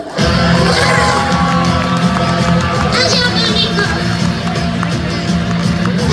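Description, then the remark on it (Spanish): Loud, steady crowd noise of applause mixed with cheering, shouts and whoops, sustained without pause for about six seconds, with voices rising through the clapping. “Aplausos.”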